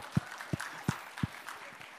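A round of applause from a crowd for a pastor, a steady wash of clapping with four evenly spaced, heavy low thumps cutting through in the first second and a quarter.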